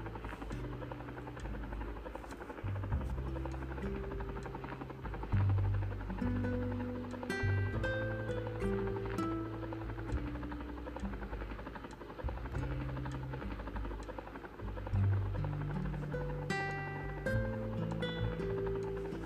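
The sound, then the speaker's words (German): A black video game helicopter's rotor hums steadily and fairly loudly throughout as the player gets back in and flies it, a continuous low droning with shifting tones layered over it and no voices. “Ich gehe wieder in den Hubschrauber rein, Enter.”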